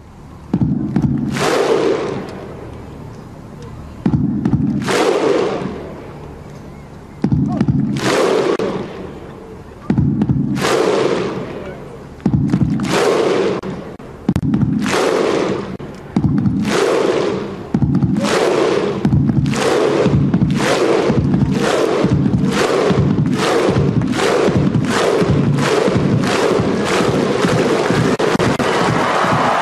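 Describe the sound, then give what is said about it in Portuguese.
A huge stadium crowd of fans and players performs the famous Viking clap: loud, unison claps with shouted grunts, slow and widely spaced at first, then speeding up into a rapid, continuous rhythmic roar. “Vamos dar um, um, um sobe-som agora para a gente escutar um pouquinho desse famoso aplauso viking.”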